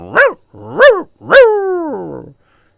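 A dog barks twice in quick, sharp bursts, then lets out a third bark that stretches into a long, drawn-out whine. Fairly loud, with no voices around it.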